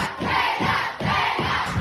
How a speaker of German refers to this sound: Ich bin gefühlt immer noch taub, denn die Fans sind so dermaßen abgegangen, als Taylor Swift den roten Teppich bei den MTV Music Awards betreten hat.